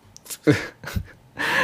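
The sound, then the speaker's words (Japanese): A sudden hiccup, a sharp breathy catch with a brief voiced squeak, followed by a short low grunt and then a longer, steady breathy exhale. No words are spoken. “しゃっくり出ちゃったあれだ前回出た時にしゃっくりを止める方法を教えてもらったんだ”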